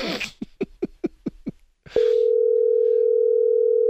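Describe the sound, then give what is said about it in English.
A quick run of six short keypad beeps, a brief pause and a click, then a steady, unbroken telephone dial tone that hums loudly and evenly until the end. No one speaks. “we got to make a quick phone call here.”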